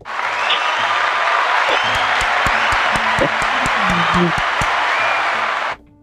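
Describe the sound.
An audience applauds steadily for about six seconds, a dense wash of clapping with a few sharper individual claps and faint voices mixed in, then it stops abruptly.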